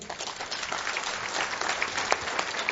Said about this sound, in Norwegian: Bodil Haug, vil du komme opp? En applaus til Bodil Haug.